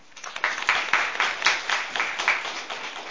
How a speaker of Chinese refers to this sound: 下面让我们掌声有请陆启红老师。